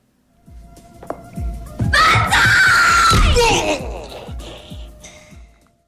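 A loud, drawn-out scream rises and holds for a couple of seconds, then gives way to quieter, indistinct murmuring voices that fade toward the end.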